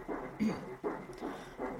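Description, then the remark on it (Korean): A fast, rhythmic whooshing pulse of a fetal heartbeat on an ultrasound monitor at a hospital, from a fetus under 10 cm long, steady beats repeating several times per second over a muffled, staticky background, with no voices. “아, 심장 소리 처음 듣나?”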